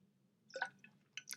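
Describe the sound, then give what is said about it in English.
Quiet sips of water: a wet slurp followed by a couple of small liquid clicks and gulps, with a low steady hum underneath and no talking. “Water break.”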